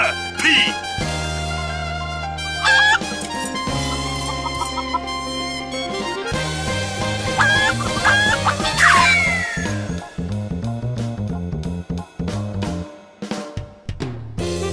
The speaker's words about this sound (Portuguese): Toca a vinheta aí, produção.